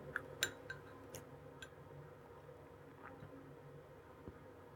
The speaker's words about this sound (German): Tropft, mein, mein Ei tropft nach.